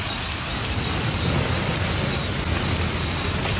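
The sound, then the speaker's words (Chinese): Heavy rain pours down in Spain after a long drought, in a steady, dense hiss with a low rumbling undertone, unbroken and fairly loud throughout, with no voices. “因此，一场大雨能否缓解长期旱象，还有待评估。”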